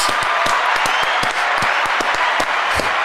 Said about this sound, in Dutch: Applaus.